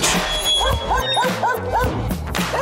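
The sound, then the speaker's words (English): Dogs bark in a quick, steady series of short, high yips, about six in a row, fairly loud over a busy, noisy background. “Because these dogs are going to keep barking if they don't get fed.”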